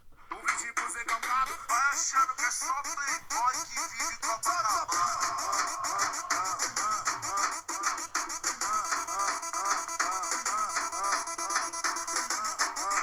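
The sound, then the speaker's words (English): A busy, loud Baile Funk music track plays throughout, with a steady rhythmic beat and chopped, bending vocal sounds layered densely over it. It continues without pause, with no talking over it. “I just played the fucking Baile Funk.”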